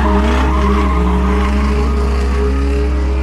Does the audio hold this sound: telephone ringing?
no